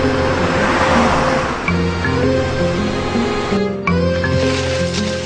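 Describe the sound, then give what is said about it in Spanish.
A car drives along with a steady, loud engine rumble and road noise, overlaid by shifting low tonal hums that step up and down in pitch throughout, with no one speaking. “Él va todos los días con el carro y recorre la ciudad.”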